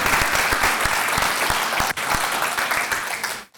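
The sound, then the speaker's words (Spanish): An audience bursts into sustained, loud applause for the Lord, dense overlapping claps with a few sharper rhythmic claps standing out, continuing steadily before fading out at the end. “And dar ese fuerte aplauso al Señor?”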